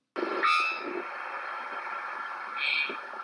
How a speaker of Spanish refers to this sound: El pájaro campana es una especie en estado de vulnerabilidad debido a la pérdida de sus hábitats y sus depredadores. Diferentes parques como el Iguazú es una reserva donde llega en época de migración esta ave, el cual le permite su cuidado.